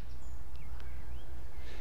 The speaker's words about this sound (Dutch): Achter ons in de sloot groeit riet. Daar zit de bosrietzanger te zingen.